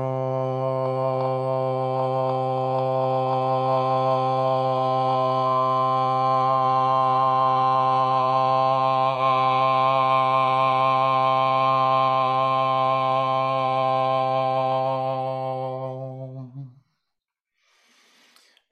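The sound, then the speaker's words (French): A single voice holds one steady, resonant tone for about sixteen seconds, starting as a closed-mouth hum and opening into a sustained vowel before stopping abruptly into silence. “Essayez, sentez sentez justement cette euh, énergie différente qu'il y a entre le son qui résonne à l'intérieur et le son qui s'ouvre.”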